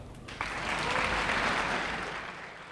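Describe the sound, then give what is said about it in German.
Audience applause greeting jazz journalists of German public broadcasting, Joachim Ernst Behrendt of Südwestdeutscher Rundfunk and Dr. Ingolf Wachler of Radio Bremen, as they are welcomed by name; it rises quickly into a steady wash of clapping hands, holding at a fairly strong level before easing off slightly toward the end, with no voices standing out. “Ach, das waren noch Zeiten, als die Jazzjournalisten des öffentlich-rechtlichen Rundfunks namentlich begrüßt und mit Applaus bedacht wurden.”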